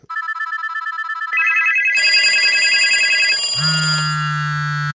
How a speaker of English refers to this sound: Because the phone rings, everybody's jumping, and it's like, what's going on over there?